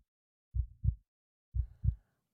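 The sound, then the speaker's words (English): An old man's heart beats with a low, muffled, quick thud twice, each beat a soft lub-dub pair about a second apart, dull like a watch wrapped in cotton, with nothing else around it. “Now I say, there came to my ears a low, dull, quick sound, such as a watch makes when enveloped in cotton.”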